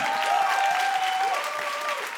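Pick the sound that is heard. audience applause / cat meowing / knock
audience applause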